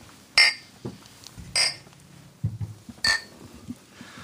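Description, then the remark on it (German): Three bright glass clinks ring out about a second apart in a toast, crisp, with faint low rustling and thumps between them and no talking. “Dann auf jeden Fall Prost.”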